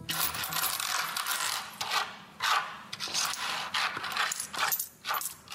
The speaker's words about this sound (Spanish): Sí, monedas, euros